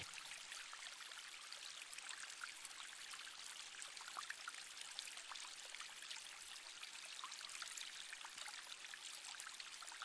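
A small waterfall of flowing water splashes and rushes in a steady, unbroken stream, soft and even throughout, with no voices or other sounds.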